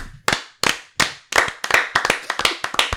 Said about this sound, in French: On l'applaudit.